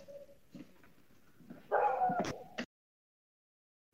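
A pet dog barks, one loud, drawn-out bark after a few faint earlier noises, then sudden silence. No one speaks.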